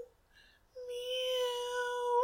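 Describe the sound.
A person imitates a cat's meow, as the cat sounds in its carrying case on the way to the vet, with a long, drawn-out, whiny meow that rises and stretches for over a second, plaintive and sad, fairly loud, preceded by a brief soft vocal sound.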